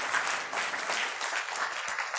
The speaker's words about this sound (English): Is there anybody in here who's yearning to see somebody saved? Give me a hand clap.